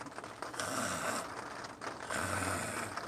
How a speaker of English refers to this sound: And, but he would hear me sometimes if I went like this with my zipper.